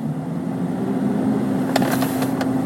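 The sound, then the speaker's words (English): A steady car engine rumble with a constant low hum and street traffic noise around it, broken near the end by a few quick, sharp clicks. “wow sorry this guy just he couldn't get around he was trying to like make a left and all this traffic here he can't come out make a left so he just went down the he just went down the wrong way.”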